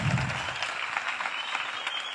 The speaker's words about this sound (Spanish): ¿Cuántos le damos un aplauso a ellos? Bienvenidos. Gracias por acompañarnos.